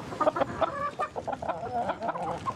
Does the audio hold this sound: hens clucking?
yes